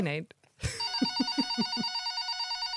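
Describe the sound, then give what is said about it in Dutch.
A telephone bell rings loudly, a bright, sustained metallic trill with rapid repeated strikes, right after a brief bit of someone speaking. “De telefoon.”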